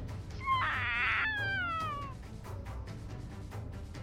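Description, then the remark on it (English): A shrill, wavering cry rises sharply and slides downward over about a second and a half, like overlapping shrieking voices or a yowling cat, loud, then fades into low background noise. “A horrible, shrieking cacophony of overlapping shrill voices.”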